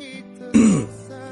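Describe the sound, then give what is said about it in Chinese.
A single short cough, a brief rough burst with a low, throaty tone, sounding alone against a quiet background with no talking. “你咳嗽最近不要感冒啊，没有感冒”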